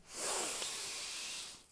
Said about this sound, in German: Jetzt atmen wir nochmal gemeinsam ein.